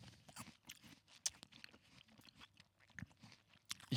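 Crisp crunching as someone bites into a green apple, followed by a run of wet, irregular chewing with sharp bursts of crunch, no talking.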